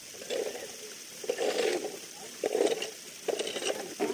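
Gravel being pushed across a perforated metal sieve sheet: four gritty, crunching scrapes in a steady rhythm, close and moderately loud, with brief pauses between strokes.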